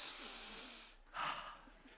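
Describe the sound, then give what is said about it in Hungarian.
An audience, asked to do so, draws sharp, forceful breaths in through the nose, a hissing sniff followed by a brief dip and a second, louder snort-like inhalation, noisy with no talking. “azt kérném a közönségtől, hogy az a, akkor jó az orszívás, hogyha torzol az arcotok, mutatom,”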